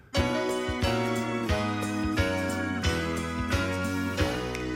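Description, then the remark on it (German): The theme song intro of the TV series Colt Sievers plays loud: full instrumental music with a steady, driving beat and bright sustained chords, and no one talking over it. “Nee, wir hören jetzt Colt Sievers.”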